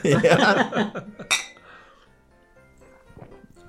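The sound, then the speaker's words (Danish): Glasses clink together in a toast, a quick cluster of bright, ringing taps followed by one sharp clink, with murmuring voices before the sound settles into quiet. “Jamen, skål. skål.”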